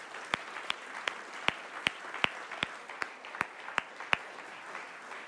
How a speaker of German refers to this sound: Und ich möchte, lasst uns doch einfach mal den Leuten, also uns natürlich auch, aber auch den Leuten, die im Livestream zugucken, schön, dass ihr dabei seid, einfach mal einen lauten Applaus geben, okay? Applaus